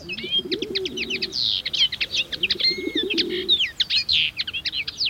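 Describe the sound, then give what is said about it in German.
Busy garden birds at a birdhouse hung on a branch in a garden chirp and twitter in quick bursts throughout, while pigeons coo in low, rolling phrases underneath, fairly loud, with no one speaking. “Und natürlich kommen auch ein paar Tauben.”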